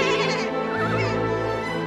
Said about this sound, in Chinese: 羊群像见到鬼似的嚎叫起来。